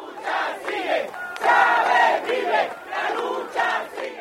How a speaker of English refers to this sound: But it wasn't just tears from the Chavistas, there were chants too, defiantly proclaiming that their comandante lives on.